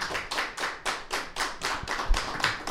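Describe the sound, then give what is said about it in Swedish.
Applause after a song, heard as a steady, evenly spaced run of sharp claps, roughly three per second, moderately loud, with no voices over it. “Ni hade inte applåderat om det var jag som hade sjungit, kan jag säga.”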